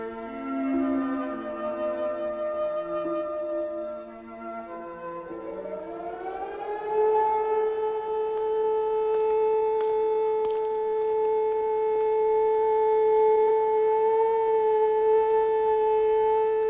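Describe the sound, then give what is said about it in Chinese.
An air raid siren wails with a wavering, rising-and-falling pitch, then climbs into a long, steady, unbroken tone that holds loud and level. No one speaks. “警报解除了，人们三三两两地钻出藏身处。”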